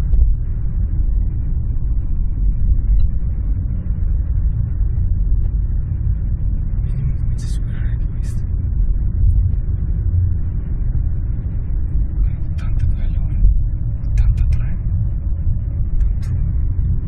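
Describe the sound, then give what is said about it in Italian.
A constant deep road rumble from inside a truck moving along the Ascoli Mare highway, steady and loud, with a few brief higher hisses and clatters as other traffic passes. “Il video che abbiamo appena visto, girato nei giorni scorsi da un camionista lungo l'Ascoli Mare e postato sui social”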